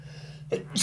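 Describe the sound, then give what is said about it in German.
A sharp intake of breath followed by the abrupt, bursting start of a sneeze over a low steady hum; no one speaks. “Ich muss niesen.”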